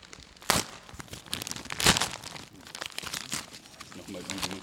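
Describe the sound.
Paper crinkling and tearing as a large envelope is ripped open, with two sharp rips standing out among steady rustling and crunching, and soft voices murmuring near the end.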